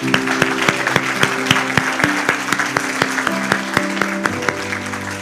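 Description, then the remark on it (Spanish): An audience at a Christian church service applauds steadily for about five seconds after a prayer to Jesus, the claps sharp and distinct over a soft bed of sustained keyboard chords that shift pitch partway through. “Un aplauso para ti.”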